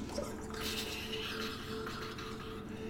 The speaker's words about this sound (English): But what you hear at first is the lack of sound. But no, no, there's plenty of sound here. One consistent sound, that's just the flowing as all of these spouts here are just